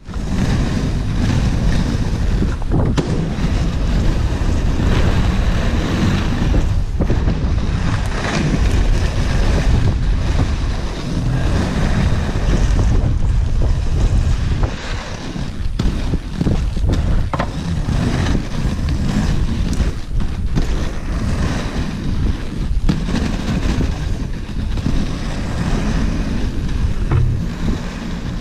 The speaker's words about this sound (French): Normalement, c'était euh, un, bruit de roue de roller qui, euh, glisse sur le bitume.